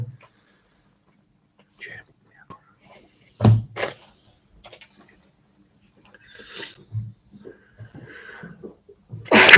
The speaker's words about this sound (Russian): Ой. Вот с Чиха и начнем.